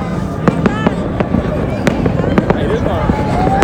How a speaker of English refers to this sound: You could hear the fireworks going off.